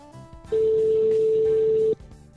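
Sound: telephone ringing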